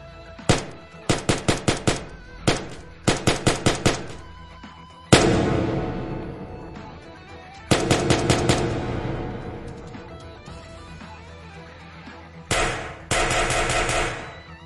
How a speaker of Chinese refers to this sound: 紧接着响起一阵密集的枪声